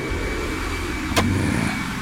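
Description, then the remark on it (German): A hair dryer, run on an extension cable to warm ice so it can be knocked off with a hammer, blows steadily throughout, a constant whirring hum with airy noise, briefly interrupted by a single sharp knock just past the middle. No one speaks. “Anja ist in ihre Wohnung gerannt und ist mit einem Verlängerungskabel und einem Föhn zurückgekommen. Ich wärme vor.”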